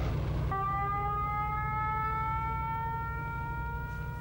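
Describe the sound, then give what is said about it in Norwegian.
An air raid siren wails with a steady, sustained tone, its pitch holding high and drifting slowly downward, layered over a deep, continuous low rumble. No one speaks. The alarm sounds in Norway at about half past three or four at night during the German attack of April 1940 (Operation Weserübung). “Og så gikk alarmen Jeg tror det måtte være i tre-halv fire-tida om natta.”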